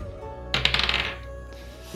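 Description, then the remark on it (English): A quick burst of hard, rattling clicks as dice tumble and clatter across a table, settling within about half a second, followed by a couple of fainter taps. “the dice selection you gave me was very bad. I've been rolling fairly poorly today.”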